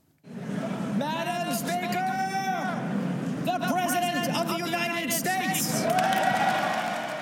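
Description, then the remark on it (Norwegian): A large crowd applauds and cheers without pause as US President Donald Trump enters the House of Representatives chamber on Capitol Hill, Washington, shortly after 9 p.m. local time for his State of the Union address; whoops and shouted voices rise over steady clapping, fairly loud throughout, swelling slightly toward the end. “Applaus for USAs president da han gikk inn i salen til Representantenes hus på Capitol Hill i Washington like etter klokka 21 lokal tid.”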